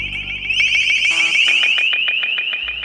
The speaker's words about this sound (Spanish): Por otro lado, existe un sistema llamado LRAD por Long Range Acoustic Device y que básicamente es un parlante que puede emitir sonidos muy fuertes.